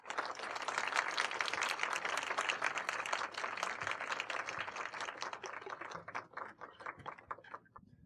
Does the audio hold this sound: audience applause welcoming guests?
yes